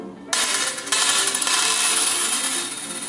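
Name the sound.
gold coins clinking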